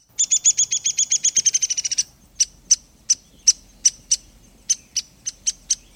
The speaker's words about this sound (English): But add a suet cake to your winter bird banquet, and you'll probably bring the downy woodpecker right up close.